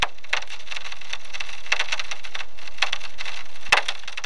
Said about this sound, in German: So klingt ein Vulkan, bevor er ausbricht. Aber wie kann man diesen Sound nutzen, um Menschen zu retten?